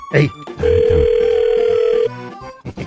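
A steady, mid-pitched telephone dial tone holds for about a second and a half as a phone call is being placed, with brief voices and rustling before it and after it cuts off.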